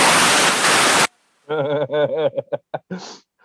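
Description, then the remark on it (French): A loud, rushing breath out lasting about a second, breathy, then an abrupt stop and a brief burst of voiced, laugh-like vocal sounds. “Expire.”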